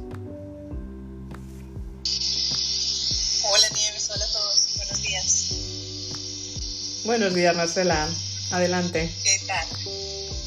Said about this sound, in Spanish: Bueno, pues perdón por el ruido que pueda tener, estoy conduciendo